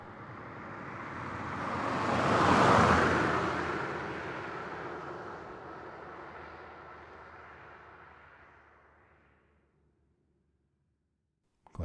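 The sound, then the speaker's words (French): A car approaches a farm, its engine noise swelling over a few seconds, then gradually dying away as it slows to a halt in front of the farm. Silence follows, broken by a brief sharp click at the end. “voiture s'immobilisa devant la ferme et que deux personnes en sortirent,”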